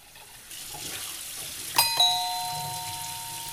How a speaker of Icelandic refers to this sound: Er uppvask í gangi? Uppvask ah. í gangi, ah. akkurat.